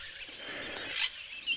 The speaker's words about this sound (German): So Papageien-ähnliche Vögel sitzen da vorne im Baum und machen Mordslärm toll. Tolles Gefieder.